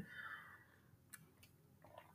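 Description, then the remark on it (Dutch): Someone takes a quiet sip of a drink: soft wet mouth sounds and a couple of small clicks, with no talking. “Even een slokje drinken.”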